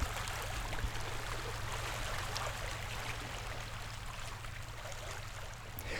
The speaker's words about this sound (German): Meeresrauschen. Ein Klang der Weite, der Abkühlung verspricht und in Mitteleuropa meist mit Urlaub verbunden wird, wo man eben die Zeit hat, am Wasser zu sitzen und den Wellen zuzuhören.